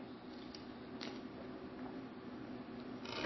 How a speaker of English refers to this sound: Let me get a drink of water. Hold on just a second.